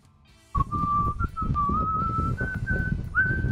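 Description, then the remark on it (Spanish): An AI-generated sound of a person whistling a slow, wavering tune in long sustained notes that drift gradually upward, while a steady, rumbling wind roars loudly underneath throughout. “Ahí el texto dice alguien silbando mientras el viento sopla.”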